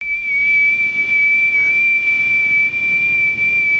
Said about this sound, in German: ich habe so einen Pfeifen im Ohr. Was ist das? Kaputt. Irgendwie ist es kaputt.